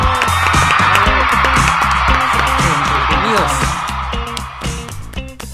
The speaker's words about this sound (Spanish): ¿De dónde sale tanta gente aplaudiendo